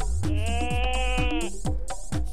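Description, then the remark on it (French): A single long, wavering goat bleat rings out loud for about a second, over a steady, rhythmic thumping beat that continues after the bleat ends. “Alors les amis, vous aimez les animaux Écoutez la poule Ou alors la chèvre”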